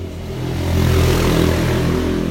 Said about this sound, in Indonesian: Wawan nih bawa motor ngebut-ngebut